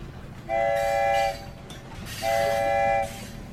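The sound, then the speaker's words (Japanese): The wheels of a private-railway train grind against the rails in the distance in two loud, drawn-out high-pitched squeals, each under a second long, separated by a short gap over a low rumbling background. No voices. “すると遠くから私鉄の車輪のすれる大きな音がした”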